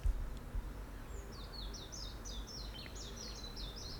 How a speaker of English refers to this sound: I just opened the window. Can you hear the birds singing outside? Birds.